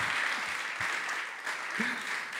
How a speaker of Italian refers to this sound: Potreste fare anche un applauso magari.